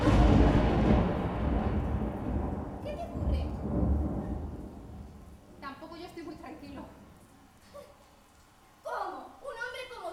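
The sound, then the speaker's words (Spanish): A loud roll of thunder rumbles deep and heavy, then slowly fades over several seconds before brief voices are heard near the end. “Los truenos me han asustado y he venido a toda prisa.”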